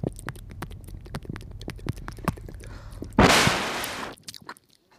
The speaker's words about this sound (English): I just did some ASMR eating and chewing and other weird mouth sounds into the into the mic really close.